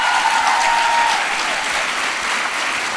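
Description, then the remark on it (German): An audience applauds steadily, a dense wash of many hands clapping at an even, fairly loud level throughout, with no voices standing out above it. “Ein Applaus, oder?”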